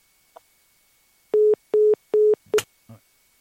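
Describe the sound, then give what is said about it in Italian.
A phone busy tone sounds three times in evenly spaced, loud beeps, followed by a sharp click and a brief rustle as the line cuts off. “La telefonata si è interrotta con un messaggio un po' sibillino”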